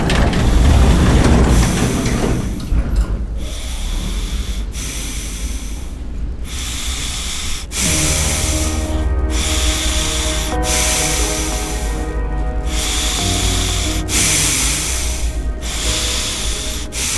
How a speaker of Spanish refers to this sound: Esa respiración fue lo primero que identifiqué.